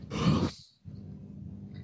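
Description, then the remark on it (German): A person gives a long, breathy yawn, rising loud then trailing off, followed by a low, softer murmur of vocal sound. “Da kommt direkt erstmal das Gähnen, richtig so.”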